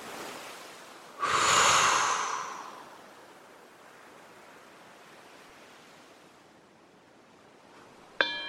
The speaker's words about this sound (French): Je serre les poings deux à trois fois. Je m'étire pour activer la chaîne musculaire et je souffle de façon tonique.